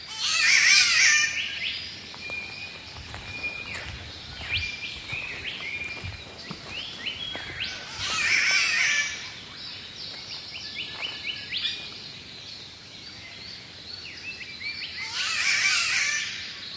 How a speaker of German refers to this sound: Nein, hier gibt es Vögel, die Fremdsprachen beherrschen. So wie dieser Catbird, ein grüner Vogel, dessen Geschrei ein bisschen an eine rollige Katze erinnert.